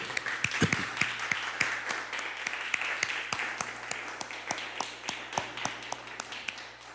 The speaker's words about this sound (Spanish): Y, bueno, denle unos aplausos bonitos, hombre.